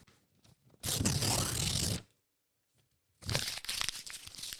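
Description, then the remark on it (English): Paper being ripped, two loud tearing bursts of about a second each, separated by a short quiet pause, with no voices. “Oh, and then an, uh, um oh, just ripping paper.”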